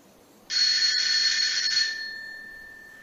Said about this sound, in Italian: Ok ragazzi, adesso siamo arrivati al portone e mm, suono.